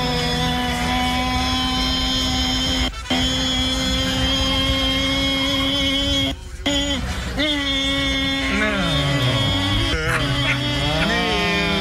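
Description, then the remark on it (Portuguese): A voice imitates a Formula 1 car with a loud, sustained, buzzing engine drone, broken twice by short pauses, then sliding down and back up in pitch like gear changes. “interpretando um carro de Fórmula 1, né?”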